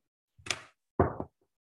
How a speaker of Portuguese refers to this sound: E então chegávamos à porta da vizinha, sabe, sabe como é que nós batíamos à porta? Então. Tem ideia? Batíamos à porta. Sim, também, tá não se importa de fazer o barulho para eu ouvir.